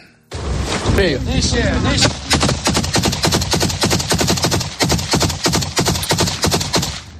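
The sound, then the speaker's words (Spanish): Loud, sustained gunfire from the war in Ukraine: rapid automatic bursts crack in quick succession for several seconds, following a brief stretch of raised voices and noise at the start. “Te recuerdo que este sigue siendo el sonido que se escucha en gran parte del país a día de hoy.”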